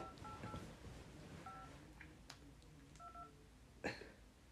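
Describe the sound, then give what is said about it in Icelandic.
Several short telephone keypad tones beep in quick succession, each a brief dual-pitch chirp, with a faint background hiss and a soft click near the end. “Hvaða nummer er það að pröfa? Ertu með síma skröðin í þessu ekki? Herri, 5885521”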